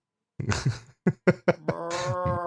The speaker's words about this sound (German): Ich glaube, da so. ist noch eine Herde Schafe.